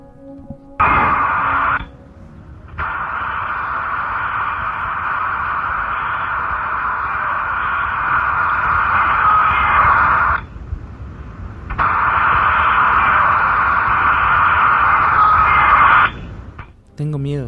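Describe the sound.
A loud, harsh, tinny hiss of static, the ambient noise of a heavily cleaned EVP recording, fills almost the whole recording, cutting out briefly twice, with faint voice-like sounds buried in the noise; near the end a girl screams "I'm scared" in Spanish.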